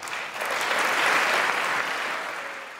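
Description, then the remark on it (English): Sustained applause from a large crowd for the former president's speech on his budget plan to eliminate the HIV epidemic in the United States within 10 years, a dense wash of clapping that swells slightly and holds steady for a few seconds, with no voices standing out. “The former president's plan got applause and bipartisan support at the time.”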